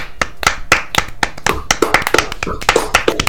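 hands clapping

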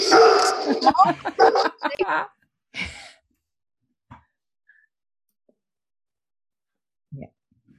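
dogs barking loudly

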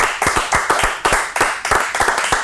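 big round of applause

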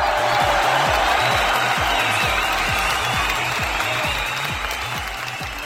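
applause

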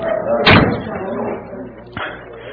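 door slamming shut

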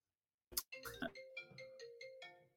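phone ringtone going off

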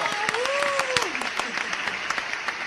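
applause

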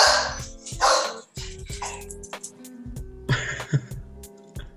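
small dog barking

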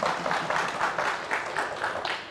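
audience applause

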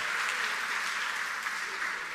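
audience applauding

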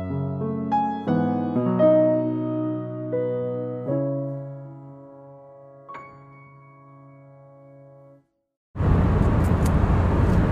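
car interior road noise

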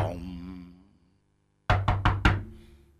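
knocking on a door

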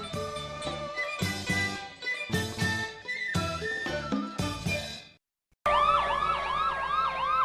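fire truck siren

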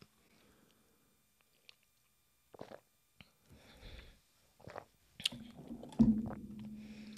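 sipping wine

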